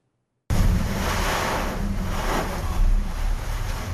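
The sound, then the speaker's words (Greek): Rough sea waves over three metres high surge and crash under a steady roar of stormy wind buffeting the microphone, loud, starting abruptly after a brief silence with no voices, as a coast guard offshore vessel tries to reach the search area for missing people from a sunken ship. “Με κύματα που ξεπερνούν τα τρία μέτρα και κάτω από δυσμενεί καιρικέ συνθήκε, πλοίο ανοιχτέ θαλάσσιε του λιμενικού προσπαθεί να προσεγγίσει το σημείο των ερευνών για τον εντοπισμό των υπόλοιπων αγνοούμενων”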